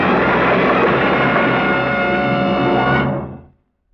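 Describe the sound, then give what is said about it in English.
A loud, shrill warning horn blares steadily for about three seconds, harsh, heard by a speeding driver, then fades away quickly into silence with no crash following. “You're concentrating so hard you don't hear the shrill, frantic warning until just before the crash.”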